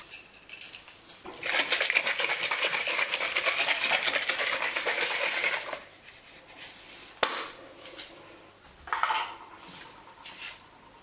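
A regular hairbrush is drawn through towel-dried hair in a steady run of quick, scratchy, hissing strokes for several seconds, followed by a sharp tap and a few shorter brushing swishes.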